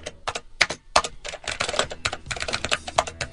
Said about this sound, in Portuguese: Está escrito aqui no roteiro efeito digitação, é isso que nós estamos ouvindo.